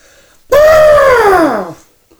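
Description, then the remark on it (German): A person imitates an elephant's trumpet with one loud, sustained blaring call lasting over a second, rising then sliding downward in pitch before cutting off. “Ja, ja und hm, laufe im Garten herum ein bisschen mhm. und, und tröte. Magst du mal hören?”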